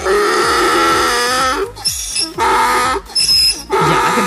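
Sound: donkey braying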